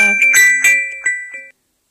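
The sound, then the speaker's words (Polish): A phone ringtone plays a bright, tinkling melody of several quick electronic notes, fairly loud, then cuts off abruptly after about a second and a half as the call is declined, leaving silence. “E, e, przepraszam, musiałam e, tutaj niestety odmówić odebrania telefonu.”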